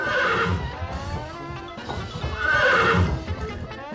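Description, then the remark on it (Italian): A white horse, ridden by a veiled Kyrgyz horsewoman dancing on it in a show ring, whinnies loudly twice, each shrill neigh rising and trembling, while hooves clip-clop steadily underneath, clear with no voices. “Ed ora, signore e signori, ecco a voi Tamira, la bellissima cavallerizza kirghisa che avvolta in un velo danzerà sul suo cavallo bianco.”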